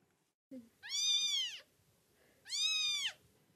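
Two high, thin kitten meows, each drawn out and rising then falling, separated by a short pause, over a faint low background murmur; the kittens were abandoned in summer 2022 and taken in at an SPA animal shelter in Orgeval, Yvelines, France.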